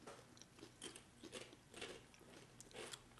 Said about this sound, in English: That is just some good stuff. Sorry everybody for all the chewing. We'll try to do our best to be away from the microphone for them.